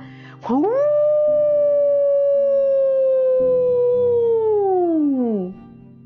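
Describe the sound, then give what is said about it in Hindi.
A single long, loud jackal howl rises quickly, holds a steady wavering pitch for several seconds, then slides down and fades, with a faint low hum underneath and no talking; the jackal howls with its mouth raised toward the moon. “उसकी सियार वाली आवाज सुनकर पास सो रहे शेर और बाघ की नींद खुल गई और उसको सियारों की ही तरह चांद की ओर मुंह उठाए हुआ हुआ करते देख वो एकदम चौंक गए”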